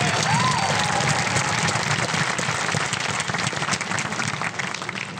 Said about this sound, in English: Let's give a round of applause to Pastor Henry.